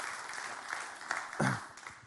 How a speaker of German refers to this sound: Ein Applaus für Emmy.